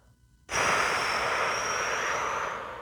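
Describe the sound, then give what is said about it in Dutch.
After a brief silence, a long, deep breath starts abruptly and loud: a steady airy rush lasting over two seconds, slightly whistling, with no talking. The breath is drawn in through the nose and let out through the mouth. “En op het moment dat je gewoon naar je adem kunt kijken, dus gewoon af en toe kunt inademen via je neus.”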